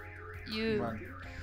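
A car alarm wails in rising and falling electronic sweeps that repeat steadily, fairly loud, with a brief burst of voices swelling over it in the middle.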